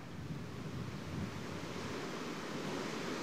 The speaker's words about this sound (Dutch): We staan hier, eh, we staan hier behangen tegen de wind van de tyfoon Fred in voor, voor het hotel hier op Taipei. Het Grand Hotel in Taipei. We zijn bijna niet te verstaan.